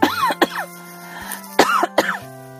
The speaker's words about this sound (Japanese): あ、咳出ちゃった。